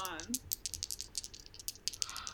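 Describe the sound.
Dice clatter and tumble across a hard surface in a quick flurry of sharp, irregular clicks, with a brief murmur of voice at the very start; the roll comes to a total of 12.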